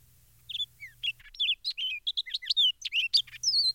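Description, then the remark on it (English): An orchard starling sings a rich, rapid song of varied whistles and chirps, continuous, in the forenoon, with a faint low hum in the background at the start and end. “The rich, copious song of the starling may be heard there all the forenoon.”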